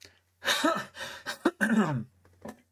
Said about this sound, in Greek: Αυτό ο βήχας θα κοπεί θα τον κόψω το βηχα